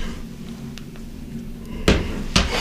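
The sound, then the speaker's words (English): Glass vodka and beer bottles clank together twice in quick succession, fairly loud, after a few faint ticks over a low steady hum. “Dude, I was wondering what was making that clanking sound, but it's literally my vodka and my beer hidden bottles.”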